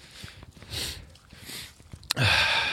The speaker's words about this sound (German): Es, wir atmen jetzt einfach mal. Ja, genau. Nur atmen. Einfach, einfach mal atmen.